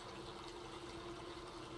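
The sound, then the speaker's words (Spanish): Flowing river water runs in a steady, continuous rush with no pauses, soft, with a faint low hum beneath it and no voices. “El río va a ayudarme a liberar.”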